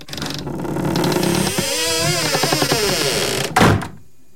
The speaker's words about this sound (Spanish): Ah, ah, abrimos la puerta y empezamos. Yo sentí más como que la cerró, ¿eh?